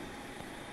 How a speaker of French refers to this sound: c'est le bruit de voiture à la allée. C'est une partie du périphérique à Munich et c'est ici qu'on mesure régulièrement des taux de, de particules fines de dioxyde d'azote qui dépassent les limites de l'OMS.